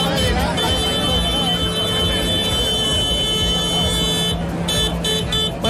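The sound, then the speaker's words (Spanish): A dense chorus of tractor horns blares almost without pause, layered over a low engine rumble, with indistinct voices in the background: a protest convoy of Huelva farmers' tractors in Seville demanding water amid drought, near the Palacio de San Telmo, the Costurero de la Reina and the Paseo de las Delicias. “lo que ha llevado hoy al sector agrícola onubense a Sevilla en demanda de agua con todos sus tractores”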